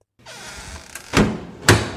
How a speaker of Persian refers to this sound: خودش را به زور به او چسبانده و هر دو صدای جیرجیر و کوبیده شدن در پشتی را می شنود.